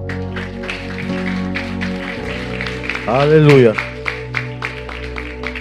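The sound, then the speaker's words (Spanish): An audience at a church service claps along in a steady rhythm over sustained music, giving applause to the King of Glory, while a voice briefly calls out in the middle. “Dele un fuerte aplauso al Rey de la Gloria.”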